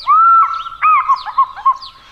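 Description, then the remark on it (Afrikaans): An African fish eagle gives a loud, ringing call with clear whistled, slightly yelping notes, a long opening note followed by several shorter ones, heard alone. “Maar soos dit mag gaan met mense ook, is daar een voël wat nie gelukkig is met hoe dinge verloop nie. Die visarend.”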